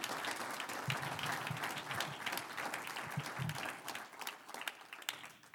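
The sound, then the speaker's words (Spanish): A crowd applauds to the Lord, many hands clapping in a dense, sustained wash of sound that holds throughout, with faint voices murmuring underneath. “Un aplauso al Señor si usted quiere ser libre.”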